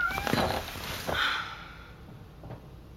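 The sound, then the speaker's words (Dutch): A cat gives a couple of short meows about a second apart, followed by a faint breathy sound in otherwise quiet surroundings. “Wat moet ik nou, poes?”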